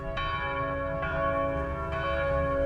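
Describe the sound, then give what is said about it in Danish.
Several different church bells ring steadily in the city of Aarhus on a Sunday morning as it nears 10 o'clock, with three distinct strikes over sustained, layered tones that hang in the air, with no talking. “så kan man høre, at der er forskellige kirkeklokker. Det bimler og bamler her i Aarhus.”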